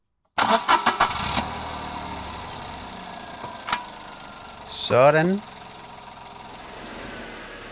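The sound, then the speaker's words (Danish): A car engine cranks and catches with a burst of rapid turnover, then settles into a steady low idle. A brief spoken word cuts in partway through. The car is being started to be manoeuvred out for a drive to Ringsted. “Så skal jeg lige se, om jeg kan få bukseret den her bil ud herfra.”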